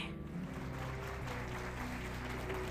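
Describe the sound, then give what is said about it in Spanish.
An audience applauds steadily to welcome Diana Uribe, a dense wash of many hands clapping at an even, sustained loudness for the whole stretch, with no voices heard over it. “Sin más preámbulos, recibamos con un fuerte aplauso a Diana Uribe.”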